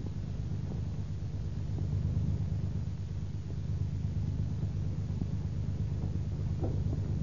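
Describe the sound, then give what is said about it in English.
A Packard car engine rumbles low and steady as the vehicle backs slowly out of a driveway, a muffled, continuous drone with faint scuffs and a noisy hiss over it, no voices. “She hurries to the door, eager to greet her husband, when she hears the car back out of the driveway.”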